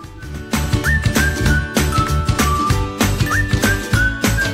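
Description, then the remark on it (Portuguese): A bouncy children's song plays loudly and steadily, with a thumping regular beat, bright percussive hits and a high whistle-like melody gliding over it, and no voices. “Enquanto eu penso na resposta, vamos ouvir uma música.”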